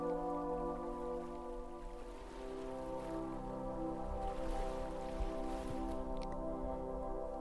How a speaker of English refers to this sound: You can hear the waves of the water coming in.